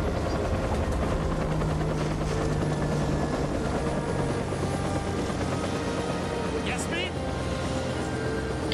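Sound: helicopter arriving overhead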